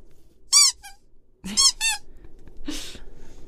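A short novelty "spoiler shark" spoiler-warning jingle: a few bright, squeaky electronic chirps in quick bursts, with a brief gap between them. It plays on its own, loud, with no talking.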